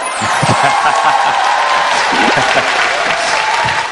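A large audience applauds steadily as a speaker comes out, a dense wash of clapping with scattered cheers and low murmurs mixed in.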